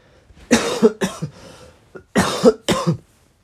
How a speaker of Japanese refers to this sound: 負けた話をするとよりね咳は強まるんでねポジティブな話をどんどんしていった方がいいんですけど